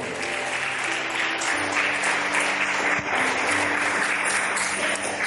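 An audience applauds steadily, a dense, sustained wash of many hands clapping at an even loudness for several seconds, with faint voices and a low hum beneath.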